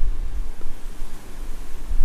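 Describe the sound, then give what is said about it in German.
Steady outdoor wind among cork oak trees fills the whole stretch, a broad rushing hiss over a deep, gusty rumble that swells and dips unevenly, buffeting the microphone. No voices. “Und jetzt lädt der Wind mich wieder ein.”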